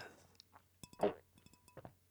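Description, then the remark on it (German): A few soft clinks of a glass of Fingerbräu Kupfer Spezial beer, one leaving a short ringing tone, quiet, with faint handling and tapping sounds around them and no talking. “ich habe hier ein Glas Bier für euch. Mit Fingerbräu Kupfer Spezial. So klingt”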